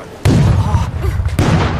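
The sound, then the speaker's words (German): A pirate ship's cannons, aimed astern, fire with a sudden, loud blast followed by a deep rolling rumble, and a second sharp crack bursts out about a second later, heavy. “Kanonen nach Achtern ausrichten. Feuer!”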